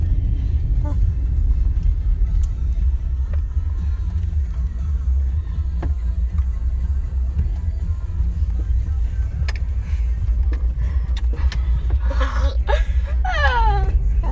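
A steady low rumble of engine and road noise fills the inside of a moving car on a late night drive, with faint voices and a burst of laughter near the end.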